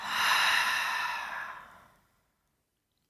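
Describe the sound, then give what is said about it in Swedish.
A single slow, deep breath out during a breathing exercise, a soft airy whoosh that swells quickly and then gradually fades away over about two seconds, followed by silence. “Andas ut.”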